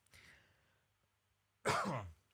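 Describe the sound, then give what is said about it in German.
A person coughs: a soft, breathy cough or throat noise at first, then after a brief pause one loud, harsh, forceful cough. No speech. “Und ich muss husten.”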